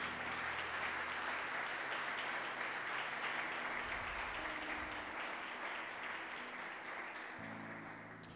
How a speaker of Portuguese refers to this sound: Dá uma salva de palmas ao Senhor Jesus.